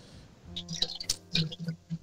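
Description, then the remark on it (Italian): Water trickles and splashes in short, uneven bursts, poured into a container while someone is making coffee, fairly faint, with soft wet squishing and dripping between the pours. “No, Sto facendo il caffè.”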